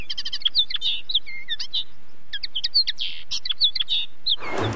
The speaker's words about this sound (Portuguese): Será o som de um passarinho, um elefante ou um canguru? E a resposta correta é o passarinho.